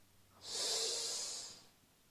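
A single long, deep inhale through the nose, an airy rush of breath that swells and holds steady for about a second before fading, with no talking.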